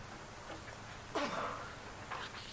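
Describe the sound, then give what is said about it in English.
A single sharp sneeze bursts out partway through, loud against a quiet hiss, followed by a fainter rustle or breath. “Bless you.”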